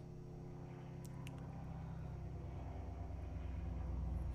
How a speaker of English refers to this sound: No one's gonna be able to hear this probably on any of our audio, but I heard a plane go over my house